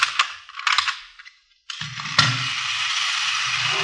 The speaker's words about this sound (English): See this gadget here? Pretty clever, huh? Yeah. Miniature Sherman tank. What's it do? Watch.